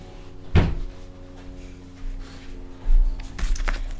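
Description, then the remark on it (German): A door thuds open with a sharp knock near the start as it is opened to let a dog into the room, followed by low rumbling handling noise and another clunk and rattle a few seconds later; no talking. “Ich muss die einmal kurz reinlassen, bevor die die Tür zerstört.”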